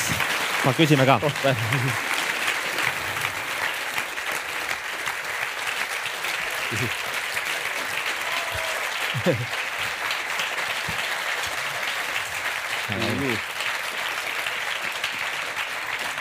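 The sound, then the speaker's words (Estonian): Sustained applause from an audience thanking a speaker after a talk fills the whole stretch, a dense wash of clapping at steady volume, while a few brief voices speak over it now and then. “suur tänu ja aplaus Paavale”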